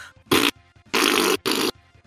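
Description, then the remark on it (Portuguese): A person loudly imitates a newborn baby's fart with their mouth: three raspy, blaring bursts, a short one followed by two longer sputtering blasts, with no talking. “Mas outra coisa que é engraçada de recém-nascidos é que também, tipo, é, o, eles, eles peidam muito mais alto do que a gente imagina que, que a gente.”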